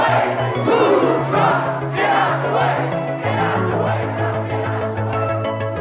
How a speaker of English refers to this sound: You hear that fucking crowd? You hear that fucking crowd? Get out the way. Get out the way.